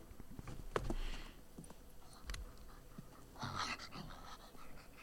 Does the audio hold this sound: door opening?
no